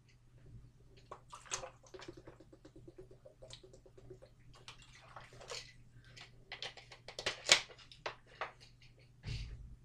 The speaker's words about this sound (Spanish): Si, no tengo nada más que comentar, vuelvo a beber agua y, pasamos con la Europa League para luego hablar de, hablar de la Champions.